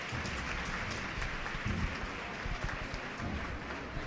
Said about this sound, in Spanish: Y ahí se ríe el paso, suena el ancla y ya escuchan como sí que hay gente porque el aplauso es atronador.